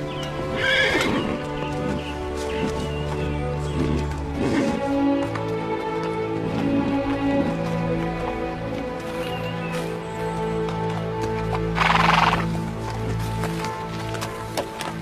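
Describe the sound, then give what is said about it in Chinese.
A donkey, being driven by a donkey driver, brays in a few loud, harsh bursts, with a steady clopping of hooves running underneath for the whole stretch. No one speaks. “哎呦，这谁家的驴啊？真叫人眼红啊！”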